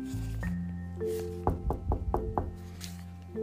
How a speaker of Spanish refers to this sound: Al llegar, dio unos golpes en la puerta y se esperó a que abrieran.